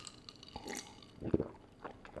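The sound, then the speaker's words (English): A voice imitates a thirsty kid noisily drinking Kool-Aid: a burst of wet gulping and lip-smacking sounds, fairly loud, with a sharp smack in the middle and smaller smacks trailing after. “This like chugging, gulping, smacking mess”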